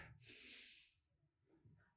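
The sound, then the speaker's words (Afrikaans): A crowd takes a deep, audible breath together, a broad airy whoosh that swells for about a second and then fades into low murmur. “Daai asem raai wie dit om vir jou gegee.”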